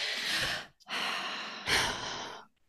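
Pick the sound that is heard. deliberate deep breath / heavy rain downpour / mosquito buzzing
deliberate deep breath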